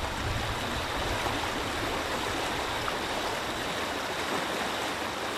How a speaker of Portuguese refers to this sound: E com mais uma cascata como pano de fundo.